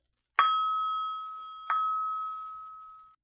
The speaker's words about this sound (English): You remember how that sounds? Can you remember it? How many times did I strike this bell?